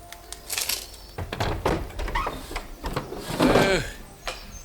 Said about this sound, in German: Kurz darauf öffnete sich über ihm ein Fenster.